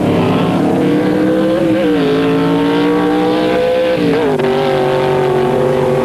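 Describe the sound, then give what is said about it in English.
Loud, roaring drag racing engines rev and launch in sequence down the strip, an F-gasser followed by an A factory experimental car, a sustained harmonic drone whose pitch shifts as the cars accelerate away, with no talking over it. “The F-gasser takes off, and then the A factory experimental job.”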